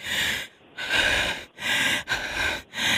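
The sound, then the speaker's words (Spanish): A person imitates heavy panting, pushing out five loud, rough breaths in a quick steady rhythm, with no talking in between. “Así nomás, el respiradero.”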